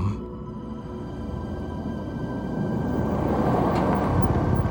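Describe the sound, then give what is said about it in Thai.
A black car's engine rumbles low and steady, growing somewhat louder as the car approaches and pulls up in front of a house, with no voices over it. “เสียงรถยนต์ดังขึ้นดึงความสนใจผมไปที่หน้าต่าง ผมเห็นรถยนต์สีดำคันหนึ่งวิ่งเข้ามาจอดด้านหน้าบ้าน”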